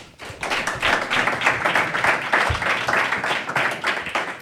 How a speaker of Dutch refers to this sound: Geef ze nog een daverend applaus mee.